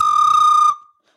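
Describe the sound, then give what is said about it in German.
A single sustained flute note played with flutter-tongue, a rapid rolling buzz riding on the steady pitch, loud for under a second before it cuts off and briefly rings out. “Flatterzunge hört sich ungefähr so an.”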